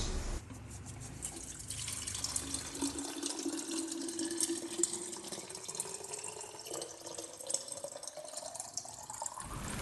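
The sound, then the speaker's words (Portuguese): Water runs steadily from a tap into a container being filled with water for an animal, its hollow tone rising gradually as the vessel fills, continuous for about ten seconds with no voices. “A gente vai pôr água para você.”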